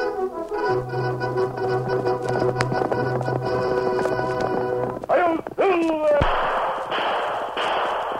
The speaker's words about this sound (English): A fiery horse with the speed of light, a cloud of dust, and a hearty "Hi-yo, Silver! The Lone Ranger!